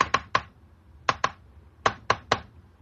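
Sharp telegraph key clicks tapping out in short bursts: three quick clicks, a pause, two more, then another three, with no voices.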